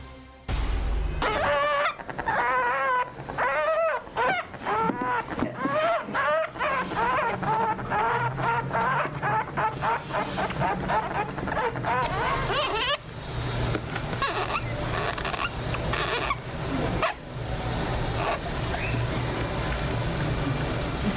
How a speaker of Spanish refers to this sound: Estamos escuchando eh, el sonido de un hurón. Quien, quien tenga un hurón en casa sabrá que no mentimos. Esto es un hurón. Son muy simpáticos.